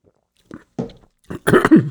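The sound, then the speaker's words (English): A sip of water: a few short, soft wet sounds of sipping and swallowing, followed by a louder, rougher throaty burst at the end. No one speaks. “But, excuse me, we get a drink of water.”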